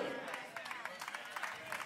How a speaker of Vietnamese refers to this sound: Tôi vẫn sẽ tiếp tục nói khi các bạn vỗ tay yếu thế này.